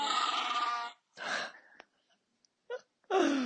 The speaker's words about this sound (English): that's his actual like sound clip for when you capture him in, in Pokemon in the new Pokemon